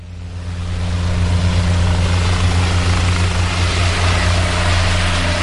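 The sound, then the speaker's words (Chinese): A helicopter's engine and rotor roar steadily, a dense low throbbing hum with a whooshing turbine rush on top, swelling over the first second and then holding loud and constant. No one speaks. “中国航空工业集团旗下的直升机设计研究所、昌河飞机工业公司、北京通航、江西直升机公司扎堆落户在这里，空军五直十也是在这里研制并首飞。”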